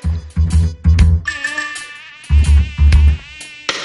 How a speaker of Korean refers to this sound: 아, 벌써부터 모기가 모기가 돌아다니네. 네. 올 올해 들어 처음 본 모기예요. 턱투유 1주년에 예. 찾아온 예. 모기 아주 귀한 손님입니다.